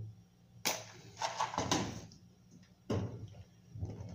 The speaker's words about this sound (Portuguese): Não sei se pegou o barulho do, do fogo sendo aceso, mas estou aqui acendendo o fogão.